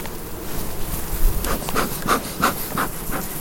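A steady swarm-like hum of honey bees buzzing at an apiary, with several individual bees droning loudly past over the dense background buzz; no one speaks.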